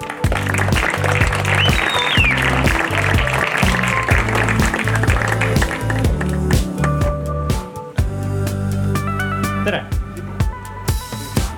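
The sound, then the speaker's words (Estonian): A crowd claps steadily and loudly over upbeat walk-on music with a thumping beat, welcoming the next speaker to a talk on Bitcoin investing, the applause continuing throughout before thinning slightly toward the end. “ja äh, ma tahaks väga-väga-väga suure aplausiga kutsuda meie head sõpra, äh, kes meid on väga palju toetanud”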